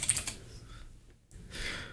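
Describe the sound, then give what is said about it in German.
Rapid clicking of keys on a computer keyboard as someone types in the place name Rotenberg, a busy flurry of taps with a brief pause before the typing resumes. No one speaks. “Eieiei, du in deine Tastatur.”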